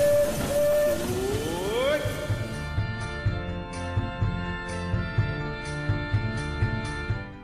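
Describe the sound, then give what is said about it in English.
The Disneyland Railroad train pulls away from a station, leaving for a grand circle tour of the park: a sustained whistle-like tone bends in pitch, then rhythmic chuffs and clanks settle into a steady beat as it gets moving. “The Disneyland Limited now leaving for a grand circle tour of the Magic Kingdom.”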